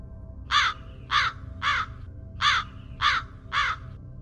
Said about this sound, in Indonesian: Tapi setelah kurang lebih 15 menit mereka berjalan, tiba-tiba terdengar lagi suara burung gagak.